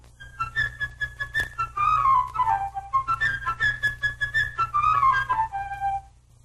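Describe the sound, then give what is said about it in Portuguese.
A flute plays the little bird's theme from Peter and the Wolf in a high register, a bright, high-pitched melody of quick chirping notes and trills, repeating a similar phrase twice with descending runs. A low steady hum sits underneath, and no one speaks. “O passarinho, a quem vamos chamar Sasha, pela flauta, num registro agudo”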